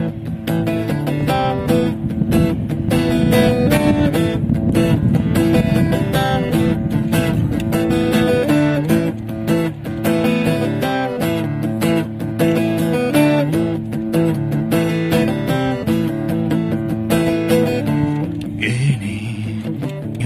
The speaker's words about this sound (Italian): la prossima canzone che vi farò sentire